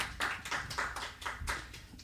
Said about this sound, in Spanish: Un aplauso, por favor.